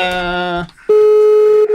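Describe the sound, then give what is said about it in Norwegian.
A telephone rings with electronic tones: one sustained, buzzy tone, a brief pause, then a second steady, clear tone held loudly to the end. No one speaks. “Du, nå ringer her.”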